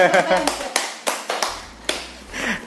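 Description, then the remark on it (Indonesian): A few people clap hands in a loose, uneven burst of sharp, scattered claps as a participant is introduced, with some voices talking over them. “Tepuk tangan juga dong.”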